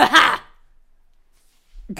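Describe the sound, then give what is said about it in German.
A person imitates the way their father sneezes with one loud, forceful vocal burst lasting about half a second. Silence follows, then another voice sound starts briefly at the very end. “Mein Papa niest ja so.”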